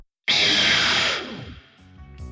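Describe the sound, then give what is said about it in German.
A harsh, distorted hiss bursts in after a brief silence: a recorded mouth shushing sound run through a guitar amp with high distortion and pitched down slightly, bright and noisy, then decays into a gritty, buzzing tail. “Anschließend haben wir es auch durch einen Gitarrenamp mit hoher Verzerrung gejagt und am Schluss etwas runtergepitcht.”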